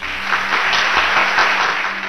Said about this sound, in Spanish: Unos cuantos cobardes comienzan a aplaudir.